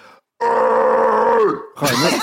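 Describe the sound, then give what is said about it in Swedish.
A man's voice imitates an angry scream into people's faces on a shared cycle and footpath: a loud, sustained harsh yell for about a second that bends downward at the end, followed by a second shorter, wavering shout. “Han skriker dem i ansiktet.”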